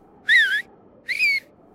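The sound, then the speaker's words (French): Two short, loud whistled calls toward the stables, each a steady tone with a slight wavering pitch, separated by a brief pause over a faint low background hum, with no voices. “Toute la cour du château est suspendue aux lèvres de la mère Noël, qui se retourne et siffle vers les écuries.”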